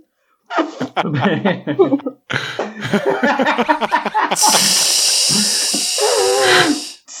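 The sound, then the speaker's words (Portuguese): A voice mimics a bus pulling to a stop: a few seconds of chuckling, rumbling vocal noises, then a long, loud hiss like air brakes releasing before it cuts off. “E aí, tipo, para, ele vai, tipo, Faz aquele barulho de novo de, de, de ônibus,”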